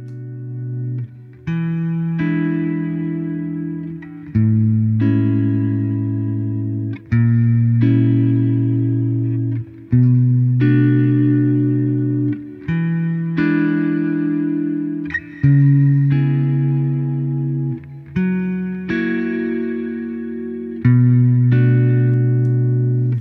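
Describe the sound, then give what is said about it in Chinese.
A plate reverb effect, in which sound is passed through a metal plate, on a sustained chord progression: loud, bright chords change every two to three seconds, each washing into a dense, shimmering tail. No one speaks. “那我们就来听一下这个板式环响的声音是什么样子的。”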